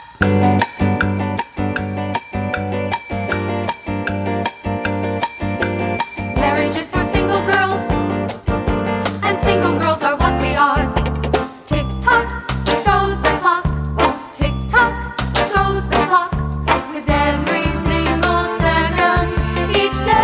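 A catchy, upbeat show tune from the Broadway musical Promises, Promises, cut from the show, plays loud, with bright bell-like tinkles over a steady, bouncy rhythm that builds into a fuller, busier arrangement partway through.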